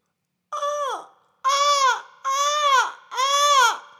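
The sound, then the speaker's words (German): A voice imitates a seagull as a voice-training exercise in near-isolation of the voice: four loud, shrill, nasal cries, a short one followed by three longer ones, each bending downward in pitch at the end, with short pauses between. “Aber hier zum Abschied nochmal die Möwe.”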